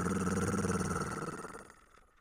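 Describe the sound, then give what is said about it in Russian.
A voice imitates a menacing growl: a single low, rolling rumble that holds steady for over a second, then fades away into quiet. It is fairly loud. “Он не решался поднять головы, лежал так с минуту, а потом услышал грозное рычание. Р -р -р”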